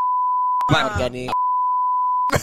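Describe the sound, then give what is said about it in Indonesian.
A steady, continuous telephone dial tone hums at a single pitch as people place a phone call, interrupted briefly while people speak over it, then resumes unchanged before more talking begins. “Enggak, ya ini kan mau kita telepon langsung sih yang uh,”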